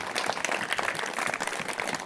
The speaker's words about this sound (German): ich finde es gerade super weihnachtlich hier und ich würde gerne mal einen starken Applaus geben an alle, die das jetzt hier gemacht haben und diese ganzen Lichter aufgestellt und alle, ich weiß es nicht, wer es war.